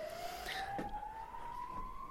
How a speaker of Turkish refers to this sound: Başladık ve ambulans geçiyor ambulans, şu anda. Ambulans e, bize eşlik ediyor.